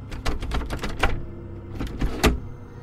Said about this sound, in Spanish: Pensé que alguien tocaba y me levanté para abrir, pero no había nadie.